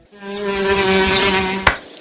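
A bee buzzes steadily for over a second, then a sudden sharp smack as a girl kills the bee cuts it off abruptly, leaving near silence.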